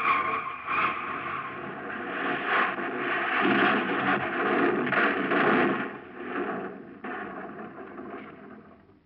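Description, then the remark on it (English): A car that rolled off a jack goes over a cliff edge, hits a ledge about 20 feet below and crashes down to the bottom: a continuous loud rumble of scraping metal and crunching impacts with several heavier bangs, lasting several seconds before fading slightly at the end. “The car shot over, hit a ledge about 20 feet below, and then crashed on down to the bottom.”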